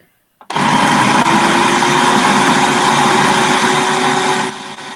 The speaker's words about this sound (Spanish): Para los que no nos ven y nos escuchan, ese ruido es de la, de la procesadora que está mezclando el yogur con la manzana.